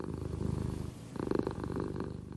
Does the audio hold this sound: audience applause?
no